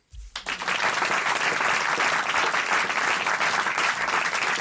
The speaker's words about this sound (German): Und deswegen äh, erstens Ihr erster Applaus, da ist er.